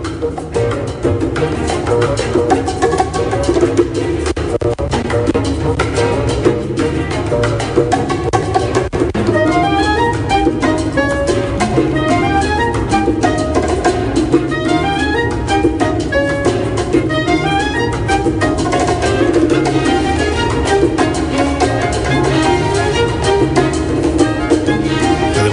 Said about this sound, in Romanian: Deci alături de Orchestra Sinfonică a Havanei, pe străzile cubaneze, Sara Willis a reinterpretat rondul lui Mozart.